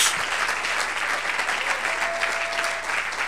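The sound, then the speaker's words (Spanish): An audience claps steadily in praise of the Lord, a dense, continuous patter of many hands at an even level throughout, with no voices standing out above it. “A ver, un buen aplauso al Señor.”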